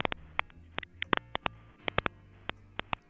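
Garbled, breaking-up audio from a person's microphone: a rapid, irregular string of wet pops and crackles over a low muffled hum, fairly quiet, with no talking.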